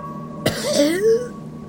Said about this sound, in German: Du erbrichst dich und musst husten.